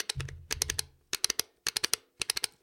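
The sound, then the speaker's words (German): Fire buttons of a Competition Pro Extra joystick clicked in quick bursts of four or five crisp taps, separated by short pauses, with a faint low rumble under the first burst and no voices. “Ihr hört nun die Feuerknöpfe des Competition Pro Extra.”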